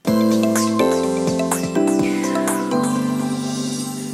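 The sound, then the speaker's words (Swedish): Wind chime tones ring out and overlap, a few fresh strikes every second or so layering bright metallic notes over a sustained shimmer, fairly loud and with no voices; a small chime hanging in the garden of a rented house, outside a window, on a very windy day. “Jag vet inte om ni hör det här tingelandet, tanglandet som händer utanför fönstret men det är väldigt eh, vindigt här idag och det är en sån här liten grej som hänger här i trädgården i det här huset som vi hyr eh, som låter väldigt mycket”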